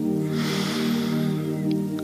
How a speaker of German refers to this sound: Jetzt noch einmal hörbar. Wir atmen durch die Nase ein